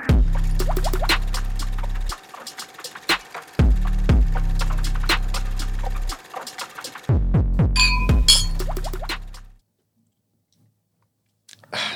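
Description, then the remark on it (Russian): Fairly loud glass clinking and tapping in rapid, irregular bursts over a low humming drone that cuts in and out, then dropping to near silence toward the end. “вот эдак со стаканом делает.”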